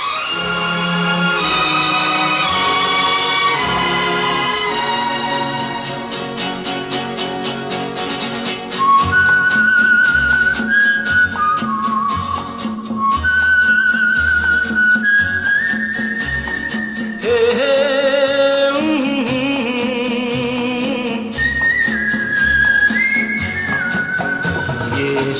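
A Hindi film song's instrumental intro plays on the radio station 105.9 The Region, with full orchestral backing, and a clear, high whistled melody joins partway through, carrying the tune in sustained phrases above the music. No one speaks.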